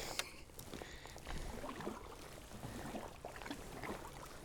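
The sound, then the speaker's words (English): Kayak paddle strokes dipping and splashing through the water of a loch while paddling past Carbost, fairly steady, with soft watery swirls between strokes and no voices. “Paddling past Carbost.”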